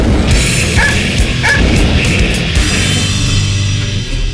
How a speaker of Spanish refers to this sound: Y antes que alguno marcara el cierre de la puerta, el salchicha busca roña y ataca.